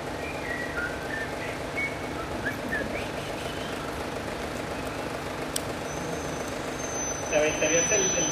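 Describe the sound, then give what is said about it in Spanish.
A person whistles faint, thin notes over steady rumbling traffic-like background noise, ending with a longer, higher held whistle tone near the end. “¿Cómo chiflarías?”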